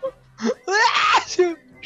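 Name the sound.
loud sneeze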